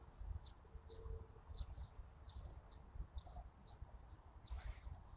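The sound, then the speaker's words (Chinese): Baby sparrow chicks call with quick, thin, high-pitched cheeps, repeated a dozen or so times in an uneven stream over a low rumbling background, with no voices. “还有麻雀，小麻雀可能出生了，所以你听这个单独的声音就是麻雀的小麻雀的声音。”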